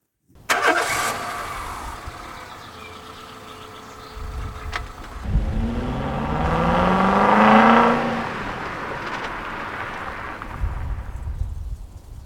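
A car engine cranks and catches, then revs up in a rising whine before settling into a steady idle, with no one talking.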